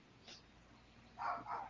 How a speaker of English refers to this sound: Let me apologize for my dogs in the background.